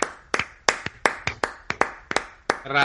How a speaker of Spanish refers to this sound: Un aplauso por los médicos, lo primero, de las 8. Un aplauso.